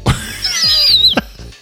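A person lets out a short, bright whistle that glides slightly downward and lasts about half a second, fairly loud, framed by a few soft knocks and rustles.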